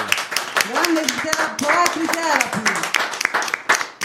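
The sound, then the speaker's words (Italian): An audience applauds, a steady crackle of many hands clapping for about four seconds while voices speak and call out over it. “Cioè, allora, un applauso.”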